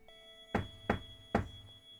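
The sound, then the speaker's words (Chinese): Three light, dull knocks on a front door, spaced about half a second apart, over a faint steady tonal hum. No one speaks. “突然，大门传来一阵轻微的叩门声。”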